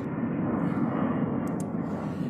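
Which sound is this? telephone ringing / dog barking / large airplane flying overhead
large airplane flying overhead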